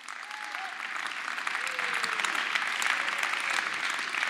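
A crowd applauds steadily, a dense wash of clapping that swells slightly after the first second and holds at a loud, even level, with faint voices underneath.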